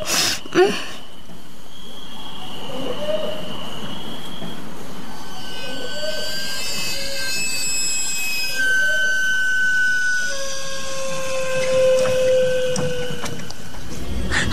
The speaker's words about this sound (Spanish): la noche de repente se oye el silbido del camote dulce del camotero. Nos asusta y despierta al bebé y al perro.